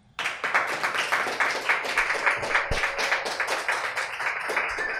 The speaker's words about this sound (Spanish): Vamos a dar un aplauso porque, bueno, lo necesito.